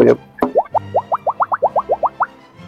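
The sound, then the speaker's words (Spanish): A quick run of about a dozen cartoonish bubble plop sound effects, each a short rising bloop, popping in a steady, bouncy rhythm, clear with nothing else around them. “eso, eso, este, que escuchan son los efectos de sonido”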